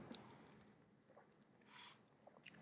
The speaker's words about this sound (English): All right, water sip time.